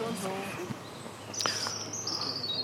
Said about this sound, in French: Ah, j'ai cru voir un oiseau, ben il n'y en a pas. Ben où il est passé le petit oiseau On l'entend faire tip tip tip